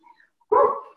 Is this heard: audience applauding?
no